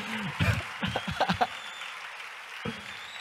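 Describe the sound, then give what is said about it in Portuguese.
A church audience applauds the Ministério Multi team on a Friday at Profetizando 2021, in a steady, dense wash of clapping that holds at an even level for a few seconds, with several short vocal bursts rising over it, like shouts or cheers. “Olha só que bênção, dá uma salva de palmas pro pessoal do Ministério Multi.”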